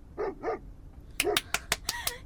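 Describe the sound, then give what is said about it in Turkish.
A dog gives two short, whiny yips, pauses briefly, then breaks into a quick run of five or six sharp, loud barks. “Köpek havlıyor.”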